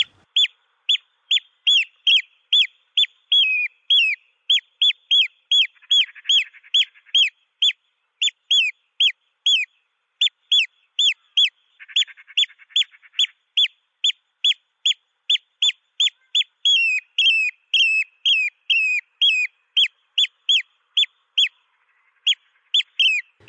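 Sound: eurasian oystercatcher calls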